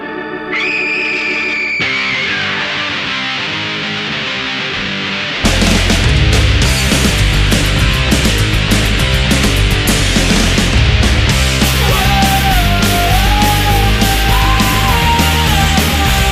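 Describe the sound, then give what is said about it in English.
A Halloween rock song with a spooky intro that gives way at about five seconds to loud, driving drums and distorted guitars, a wavering lead melody riding on top; no one talks over it. “Uh, in in 2009, I had my first experience with the band that created this incredible Halloween song.”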